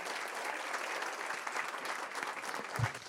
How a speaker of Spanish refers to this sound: Y de esa forma recibimos a nuestra pastora. Pastora, bienvenida. Un fuerte aplauso a Dios por la vida de nuestra pastora.